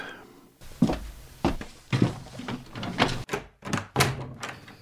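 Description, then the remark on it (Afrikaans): A series of firm knocks on a door in the evening, about seven sharp thuds in an uneven rhythm, loud, with no talking. “Wie sou nou daar my deur klop?”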